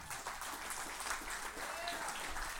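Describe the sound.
An audience claps their hands in a steady, dense burst of applause lasting a few seconds, with faint voices and a brief rising cheer mixed into the crowd noise.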